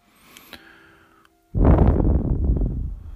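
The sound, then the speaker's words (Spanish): A long, deep inhale through the nose during a breathing exercise, a rushing breathy noise lasting nearly two seconds after a brief quiet moment. No one speaks. “Bueno, entra, entra el oxígeno”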